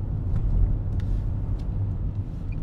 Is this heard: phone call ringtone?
no